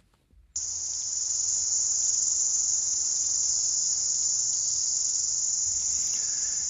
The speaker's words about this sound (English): Yes, the iconic New Zealand cicada chorus.